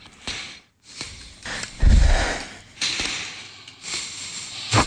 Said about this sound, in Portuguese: Agora, para, para as pessoas pessoas que ouviram de facto a música, o que estiveram a perder foi isto. Vamos respirar um pouco para os microfones.